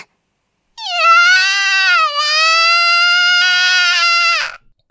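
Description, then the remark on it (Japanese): A child wails loudly in one long, high-pitched cry, breaking briefly partway through before the sustained howl continues and then stops abruptly. Intense, with no speech. “もう、そんな大声を出してご近所に迷惑でしょう。”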